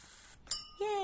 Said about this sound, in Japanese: イェーイ、乾杯何に乾杯かわかんないけどさ。